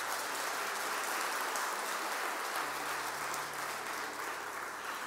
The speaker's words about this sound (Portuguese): Você pode dar salva de palmas para Jesus bem forte.